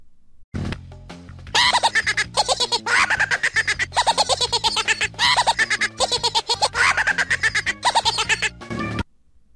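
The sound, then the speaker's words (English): A toy-like cackling jack-in-the-box laugh sound effect, used in the 2003 movie Elf and heard in Crash Bandicoot games, bursts out after a brief click, rapid rhythmic giggling pulses repeating loudly for about seven seconds before cutting off abruptly, with no talking. “It was used in 2003's movie Elf, where the um, Jack in the Box jumps out and laughs.”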